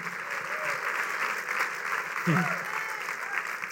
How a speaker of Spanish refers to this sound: Pueden aplaudir al Señor.